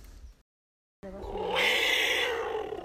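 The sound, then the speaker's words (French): After a short silence, an ocarina-like instrument played by street vendors at the foot of the Pyramid of the Sun in Mexico lets out a loud, rasping wild-animal cry that swells into a bright, roaring peak and holds strongly to the end. “Ici, vous entendez des cris de sortes d'animaux sauvages qui sont en fait reproduits par une sorte d'objet tel un ocarina, un instrument.”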